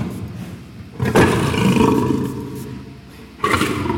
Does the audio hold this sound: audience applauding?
no